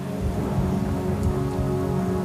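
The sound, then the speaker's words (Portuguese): Heavy rain pours down steadily during a storm, a dense, constant hiss with a deep low rumble underneath, loud throughout with no voices. “O temporal não abrandava.”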